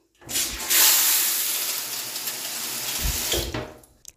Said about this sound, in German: So hört sich übrigens meine Dusche an.